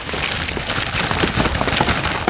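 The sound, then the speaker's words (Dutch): Steady crinkling and rustling of paper as wrapped birthday gift packages are handled and shaken before unwrapping, dense and continuous with small crackly bursts throughout, and no talking. “Moeten we wel een keer wat Even ritselen? Hoor, hè?”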